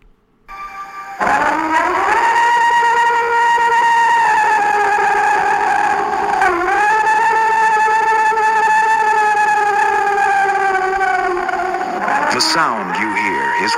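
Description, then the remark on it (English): An alleged Bigfoot scream, recorded by a group of campers in the state of Washington in 1971: one long, loud, sustained howling wail lasting about twelve seconds, with a brief dip in pitch midway and a wavering, warbling finish, with no talking over it. “what some experts claim to be a Bigfoot scream. Recorded in the state of Washington by a group of campers in 1971, it is regarded as the highest quality audio of the creature ever captured.”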